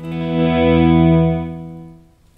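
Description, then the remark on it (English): A sustained electric guitar note swells in gently through a Memory Man delay pedal, holds for about a second, then fades away. It is a single smooth, rich-toned volume swell with no talking. “So, um, if I were to do swells with just the memory man, with my normal, uh, let's see, with my normal setting, it would sound something like, and then it would go away whenever I finish the swell.”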